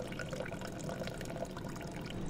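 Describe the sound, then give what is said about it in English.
Steady liquid pouring, a continuous splashy trickle as coffee brewed with egg and cold water runs through a sieve, even in loudness throughout with no voices. “And then you just sieve it out.”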